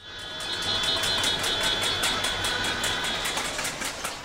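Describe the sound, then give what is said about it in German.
Rapid, steady clanging of objects on pots and pans in Myanmar, in protest against the 2021 military coup, keeps an even beat while car horns hold long, blaring tones underneath, a loud, dense outdoor din with no voices standing out. “Das Klappern von Gegenständen auf Töpfe und Pfannen, Hubkonzerte.”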